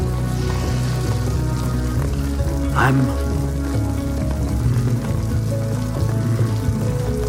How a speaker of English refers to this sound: I don't mind the rain.